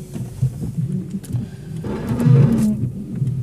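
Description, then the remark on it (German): A car's rear windshield wiper makes one strained, groaning sweep as the car is put into reverse, over the steady low rumble of the vehicle, loud, with no voices. “Ähm, ich habe den Rückwärtsgang eingelegt und äh, ich kenne kein Auto auf dieser Welt, bei dem der Heckscheibenwischer nicht komisch klingt.”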